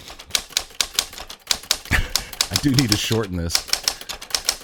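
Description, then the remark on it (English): Rapid, loud typewriter keystrokes clatter in a steady rhythm, while a man speaks briefly over the typing. “Let me find my uh, my annoyingly loud typewriter.”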